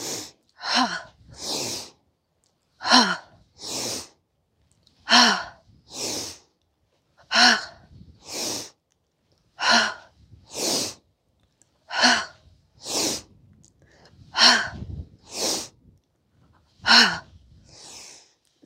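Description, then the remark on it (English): A series of forceful, breathy "ha" exhalations during a wood chopper exercise, done with feet wide and arms taken overhead on the inhale, repeats in a steady rhythm, each a sharp burst of breath with a quick inhale between, fairly loud with no talking. “You're going to inhale, take your arms overhead. Exhale with the ha sound. This is wood chopper.”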